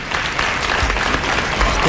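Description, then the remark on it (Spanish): Loud, sustained applause from a TV show audience in Spain welcoming a German pop group, a dense steady wash of many hands clapping at once with no breaks, filling the whole moment. “para que reciban este fuerte aplauso de bienvenida.”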